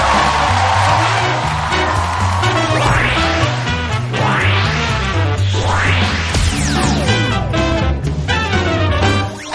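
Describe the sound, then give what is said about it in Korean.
A loud crowd applauds and cheers continuously to welcome the guest, comedian Shin Bong-sun, with excited whoops rising above it, all blended with upbeat entrance music that plays underneath throughout. “오늘 게스트 모시겠습니다 여러분 박수로 환영해 주시기 바랍니다 신봉선 씨입니다”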